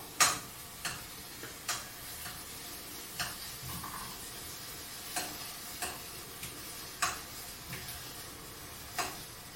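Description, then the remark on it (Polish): Steady sizzling in a frying pan, punctuated by about a dozen sharp clicks and taps at irregular intervals as shrimp are flipped one by one with a small flat spoon, the edge ones first, then those in the middle. The shrimp were just doused with cold water and lemon juice. No voices. “pod spód wsuwam tą małą, płaską łyżeczkę i każdą krewetkę po kolei myk odwracam na drugą stronę.”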